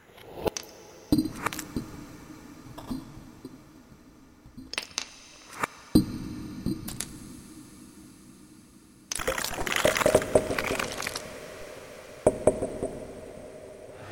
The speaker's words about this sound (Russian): Мне э, больше всего понравился звук макадамии, если честно.